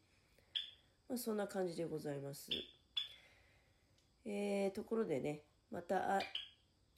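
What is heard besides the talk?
java sparrow chirping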